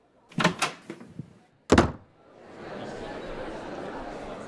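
A few quick rattling knocks, then the door of a school principal's office bursts open with a single loud bang, giving way to a steady wash of background noise.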